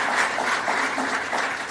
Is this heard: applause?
yes